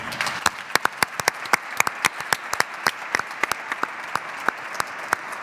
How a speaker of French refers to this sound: Je vous propose, mesdames et messieurs, d'applaudir bien fort Jean-Luc Moudinque.